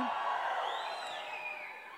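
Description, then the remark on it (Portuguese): A large church audience shouts and cheers together as a greeting to people following the service online, a loud, sustained roar of many voices, with scattered whoops rising above the crowd before it slowly begins to fade. “Dá um grito aí para todo mundo que está ouvindo pela internet, acompanhando o culto pela internet.”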